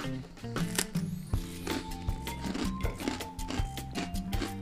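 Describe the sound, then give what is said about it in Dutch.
Someone bites into a cracker with a spicy spread, making a series of crisp, crackly crunches at an uneven chewing rhythm, heard over a steady low tonal background. “Nou, dan ga ik nu een hap nemen.”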